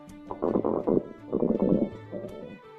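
A little girl's stomach rumbles and gurgles in three bubbly bursts as she walks home from kindergarten, the first two longer and louder, the last one shorter and softer, with a low, churning, watery tone and no talking.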